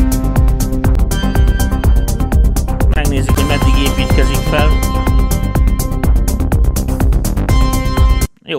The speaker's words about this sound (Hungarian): Hát ilyen kicsit ilyen, ilyen dark. nosztalgius, dark, szinti pop.